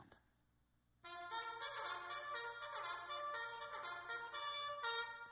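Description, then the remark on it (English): A loud, brassy trumpet or bugle call playing reveille, bursting in after a moment of near silence and sounding a steady run of bright, sustained notes, with no talking. “Reveille, right?”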